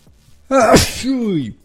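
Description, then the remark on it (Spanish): A single loud sneeze from a man who is a bit ill: a sharp inhaled buildup bursting into a noisy explosive blast, followed by a brief voiced trailing sound as it fades. “Perdónenme, papis, les digo que ando un poco enfermo, pero aquí ya, estornudando, perdón, papis.”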